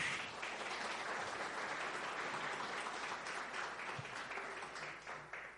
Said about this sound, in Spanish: Te damos la bienvenida. Si quieres ponerte de pie, por favor. Y vamos a darle un aplauso, por favor.